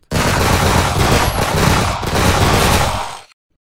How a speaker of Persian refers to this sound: و پنجاه سرباز ایستاده بودند به صف اول فرمان شلیک دادند آنها شلیک کردند و نشستند بلافاصله به صفحه دوم فرمان شلیک دادند آنها هم شلیک کردند و نشستند صف سوم بدون فاصله شلیک کردند